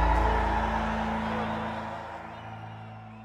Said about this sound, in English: The barricaded White League fires a warning shot, and then we hear the rebel yell.